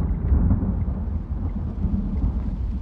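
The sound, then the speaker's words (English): A thunderstorm with a heavy, continuous low rumble of thunder over a dense hiss of rain pounding on the roof of a car, loud and steady throughout, with no voices. “My first clue that something was wrong came when the storm finally hit.”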